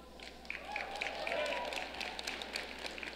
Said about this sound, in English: That was a shitty ass clap. and, and, let, and let me tell you, and let me tell you why it's a shitty ass clap.